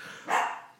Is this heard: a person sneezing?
no